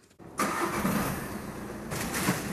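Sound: car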